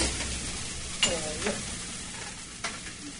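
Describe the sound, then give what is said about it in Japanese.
Steady crackling sizzle of food frying in a pan while seasonings of miso and sugar are mixed, with a few brief clinks and scraping stirs of a utensil against the cookware, without any talking. “焼いてる間にですね、調味料を混ぜます。”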